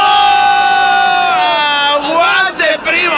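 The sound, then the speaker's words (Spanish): A crowd cheers loudly and continuously, voices joined in one long sustained high-pitched roar that wavers slightly and breaks up near the end. “no necesito sus, sus, no necesito sus porras, porque ustedes son hipócritas. Le aplauden a él, me aplauden a mí, pues a todo el mundo le aplauden.”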